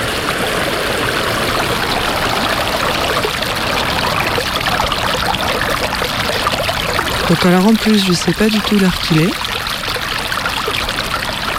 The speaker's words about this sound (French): Mais bon, je suis au bord du ruisseau, alors ça va.